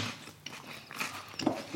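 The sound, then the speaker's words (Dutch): Moist chewing and biting sounds of someone eating a sandwich, with soft crunches and smacking over about two seconds, no talking. “Oeh, een lekker broodje.”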